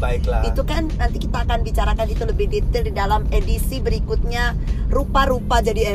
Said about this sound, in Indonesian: mohon maaf kalau suaranya bergerak bergerak dan juga banyak uh, eh, klakson klakson mobil karena, karena ini dibuat kita bikin di mobil